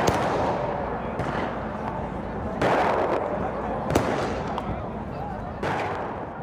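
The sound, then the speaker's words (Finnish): Fireworks go off in a handful of sharp, irregular bangs over a dense, continuous roar of crowd noise and shouting voices during a street riot in Northern Ireland, where rioters throw fireworks, stones and petrol bombs at police in riot gear sheltering behind armoured vehicles. “Poliisi yrittää hallita väkijoukkoja mellakkavarusteissa ja panssaroitujen autojen suojissa, mutta saa niskaansa kiviä, ilotulitusraketteja ja polttopulloja.”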